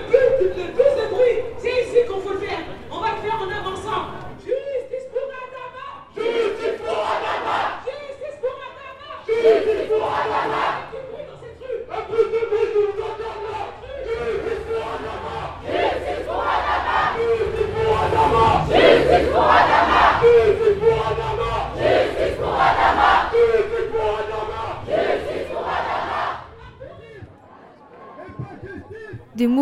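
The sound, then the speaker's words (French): A large protest crowd making noise for Adama chants in unison in the street, loud voices rising and falling in steady rhythmic bursts. Shouts and cheers blend in throughout before the chant briefly drops off near the end. “On va faire du bruit pour Adama dans cette rue.”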